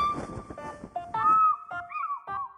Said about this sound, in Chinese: 咦，这是什么声音？是从鱼鹰的巢穴下面传来的。 呃，好像是小鸟的叫声。 仔细瞧瞧，原来是鹪鹩。它们竟然在鱼鹰的巢穴下面筑起了自己的巢。